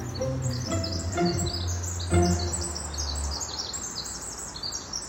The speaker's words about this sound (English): Slowing down here to enjoy these bird sounds.